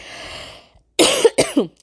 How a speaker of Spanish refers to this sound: Perdón, ya saben la tos.